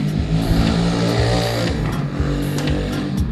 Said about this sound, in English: Yes, thank you. Very loud motorcycle. Yes, I. I acknowledge that you are out there.